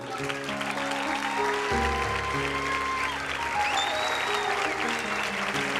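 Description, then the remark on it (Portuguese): Loud, sustained audience applause fills the whole stretch, a steady wash of clapping over soft held keyboard chords that shift pitch partway through. “aplauso forte a ele.”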